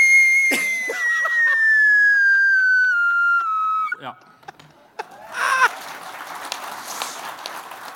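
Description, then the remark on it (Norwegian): A voice imitates a heavy metal scream: one long, piercing high-pitched wail held for several seconds that slowly slides downward, followed by a short burst of rougher noise. “Og så kommer det skriket, vet du.”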